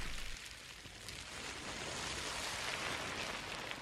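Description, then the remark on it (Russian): A steady, dense rustling of plastic waste collected from a beach, washing and hissing like ocean surf, swelling slightly after the first second and continuing without pause; no voices. “Это звуки пластика, который команда Less Plastic собрала на одном пляже, чтобы мы с вами услышали — как может звучать океан для будущих поколений?”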